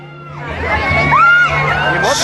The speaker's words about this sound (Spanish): Y el invitado de hoy, señores, tiene más de 20 años en el periodismo, amado por unos, odiado por otros. Un aplauso para...